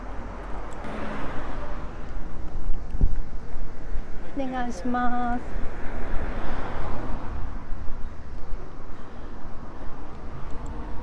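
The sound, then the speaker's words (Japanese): Outdoors at a bicycle parking lot near a road, just after a bicycle is left there, with a steady low rumble of passing traffic throughout, a single sharp click, and a brief spoken phrase from a voice midway. “今駐輪場で自転車を預けたところです”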